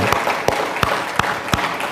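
An audience applauding in praise of God: a dense wash of clapping with strong unison claps landing on a steady beat, roughly three per second, fairly loud and with no voices over it.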